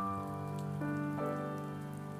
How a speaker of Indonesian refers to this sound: Belakangan rintik hujan turun, membasahi wajah dan rambut.